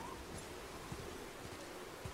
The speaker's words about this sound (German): Dunkle Wolken verdeckten den blauen Himmel. Der Wind blies unablässig.